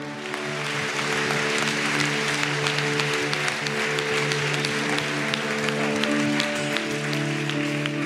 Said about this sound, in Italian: Facciamo un applauso meraviglioso al nostro Dio e al nostro Re. Alleluia!